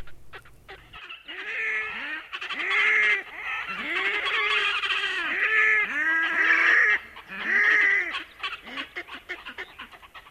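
Loud, harsh wailing and braying calls of red-necked grebes in courtship, repeated in rising, squealing bursts with overlapping voices, continuous for several seconds.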